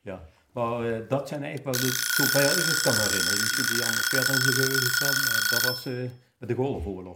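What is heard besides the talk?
alarm clock ringing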